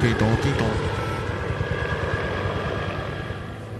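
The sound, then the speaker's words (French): A helicopter passes overhead as it returns, its rotor thudding in a steady rapid rhythm under a loud, continuous engine roar that fades slightly over a few seconds. “Et, l'hélicoptère qui revient me chercher Je, l'entends il, revient Il revient, mais il ne peut pas se poser ne vous posez pas Hélicoptère, ne vous posez pas”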